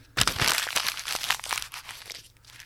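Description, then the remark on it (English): Loud crinkling and crunching of paper being crumpled into a ball, a dense burst of crackles that continues for a couple of seconds before easing off. “You think everybody was able to tell that was me crumpling up paper?”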